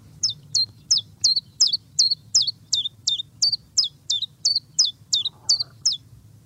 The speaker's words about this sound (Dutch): Nou, mooi geluid. Een vogel die zijn eigen, eigen naam eh, roept, zingt, eh, voortbrengt. Ja, en als je hem hoort, dan is het voorjaar niet ver meer weg. Dus, dus de Chifchaf is een soort lente, lente-aankondiger.